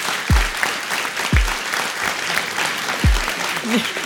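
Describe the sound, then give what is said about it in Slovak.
Steady, dense applause from an audience welcoming a jazz musician fills the whole stretch, a continuous crackle of many hands clapping, punctuated by three deep thumps. “Toto už bol taký legendárny potlesk.”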